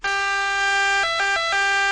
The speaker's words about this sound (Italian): Ecco, sta arrivando l'ambulanza blu del Rai per riportarmi a casa.